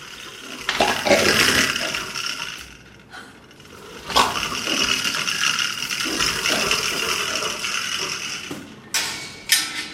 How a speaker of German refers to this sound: Aber ihre Kollegen im Käfig nebendran, die zeigen, wie das tut, wenn ein Stachelschwein seine Stacheln schüttelt.